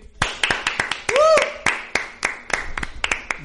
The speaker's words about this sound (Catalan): Un aplaudiment públic.